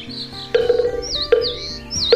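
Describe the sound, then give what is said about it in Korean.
Birdsong in a quiet mountain forest during a temple stay: a bird repeats a bright, swooping whistle about three times at steady intervals over a soft, sustained low background, with no one speaking. “조용한 산속에 울려 퍼지는 새소리와”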